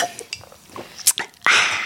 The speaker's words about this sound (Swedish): Ska vi inte skåla med våra lyssnare? Jo, det gör vi. Skål, i vad vi nu än väljer att bubbla med.